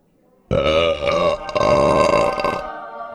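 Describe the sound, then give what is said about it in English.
A single loud, drawn-out belch rumbles for about two seconds, rough and throaty with a wavering pitch, alone before cutting off abruptly. “And number five, listen to that hang time.”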